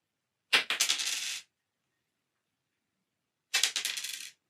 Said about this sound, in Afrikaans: Weer 'n keer twee dinge. Nou ja, ek dink jy het gaan uitwerk uh en dit dalk maklik gehoor dat dit geldstukke was wat geval het. Twee redelike lekker groot swaar geldstukke. Ek sien nog dis Russiese muntstukke wat ek eendag gekry het